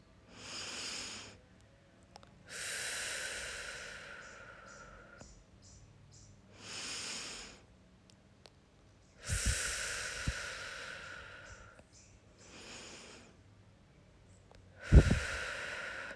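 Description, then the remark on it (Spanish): Slow, deep breaths drawn in, held and let out three times, inhaling, holding and exhaling for one count each, each airy rush separated by short pauses of near silence, with no talking. “Tomamos tres respiraciones profundas, inhalando en un tiempo, sosteniendo en un tiempo y exhalando en un tiempo.”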